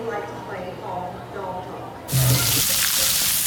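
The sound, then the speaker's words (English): A man talks for about two seconds, then a loud, steady hiss of sizzling hot dogs on a grill starts abruptly and crackles on continuously. “Hear that? That's the plumpest, juiciest hot dogs you've ever seen getting their grill on.”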